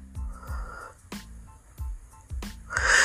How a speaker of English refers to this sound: My dog is, of course, snoring in the background.